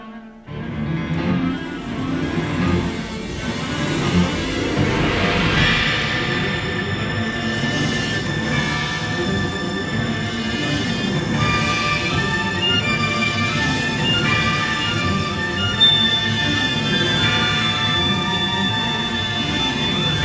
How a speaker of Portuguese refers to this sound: vocês estão ouvindo aí é a faixa inicial com um tema que é o, o tema central do filme e é, chega a ser, digamos, o tema uh, assustador, o tema de que literalmente algo está